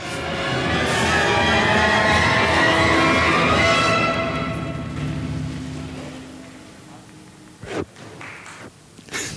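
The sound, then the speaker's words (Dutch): A thick, steady wash of loud sound fades out, followed by a handful of scattered, sharp hand claps near the end, irregular and fairly faint, with no talking. “Daar, daar hebben dus waarschijnlijk mensen geklapt.”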